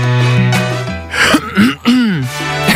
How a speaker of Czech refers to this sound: Jakmile v našem okolí někdo zasmrká nebo zakašle, tak se všichni jako podívají a zbystří. Všimáte si toho? Že když jste v tramvaji, jenom si odkašlete